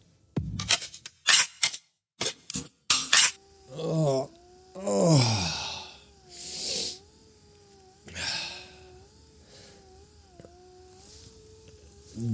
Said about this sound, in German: Das ist das Geräusch des Weihnachtsgeschenks meiner Frau. Sie schenkte mir nämlich eine automatische Rückenkraul- und Nackenmassagemaschine, die man sich einfach um den Hals hängt und die einen dann durchknetet und mit oh, Rotlicht bestrahlt